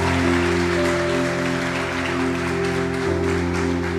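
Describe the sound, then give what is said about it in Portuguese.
An audience at a church service claps loudly for God, continuously for about four seconds, the dense applause layered over steady, sustained keyboard chords that shift once near the end; no one speaks. “Dê uma salva de palmas bem forte a Ele, porque Ele é bom.”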